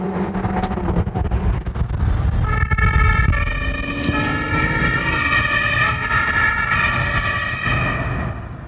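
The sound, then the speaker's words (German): A police siren wails loudly over heavy engine and road roar, its rising and falling tones coming from a police car with blue lights racing directly behind a white Lamborghini in a tunnel in Hannover, with no talking. “mit Blaulicht und Martinshorn direkt hinterher.”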